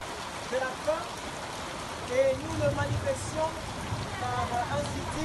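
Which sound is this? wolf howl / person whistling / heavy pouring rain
heavy pouring rain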